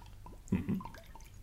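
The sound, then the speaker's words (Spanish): Water is poured into a glass, a brief run of gurgling, bubbling splashes with rising liquid tones lasting a little over a second, with no one speaking. “¿Quiere algo de beber? Con un poco de agua estará bien, gracias.”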